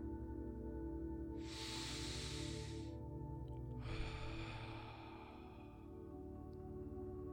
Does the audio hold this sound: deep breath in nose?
yes